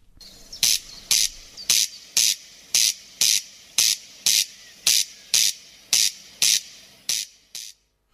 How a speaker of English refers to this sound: Yes, a sound that was common in Ireland many years ago, now confined to just a few places in the west of Ireland. That is indeed the corncrake. But good news today, the numbers are on the rise.